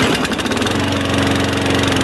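A lawn mower engine runs steadily, a loud, continuous droning hum with a rough mechanical buzz and no voices.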